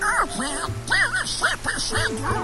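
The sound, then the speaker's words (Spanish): A raspy cartoon duck voice quacks out a rapid string of garbled, unintelligible syllables, loud, over a faint steady low hum in the background. “Y al pato ese que no se le entiende nada.”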